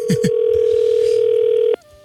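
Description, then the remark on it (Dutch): A telephone line ringing: one long, steady mid-pitched ringback tone holds for about a second and a half after two quick low knocks, then cuts off abruptly into quiet. “Ja, hij gaat over.”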